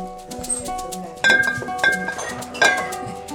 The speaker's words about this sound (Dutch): Dit was dit waren dus de wijnflessen van meneer Hamersma.